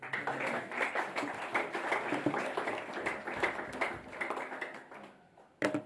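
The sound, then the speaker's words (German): An audience at a church service applauds steadily, a dense patter of many hands clapping at a fairly even level for several seconds before fading, followed by one brief louder burst at the end. “Ich glaube, wir können das mit einem Applaus einmal ausdrücken.”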